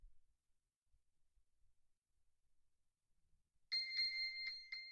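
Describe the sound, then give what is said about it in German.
After several seconds of near silence, a phone located with a 'find phone' command starts ringing and vibrating, a loud, bright electronic ringtone sounding in quick repeated chiming pulses that continue steadily to the end, with no one talking. “Das Telefon summt, vibriert.”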